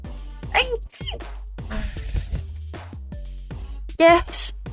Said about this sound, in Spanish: Eh, Déjenme estornudar.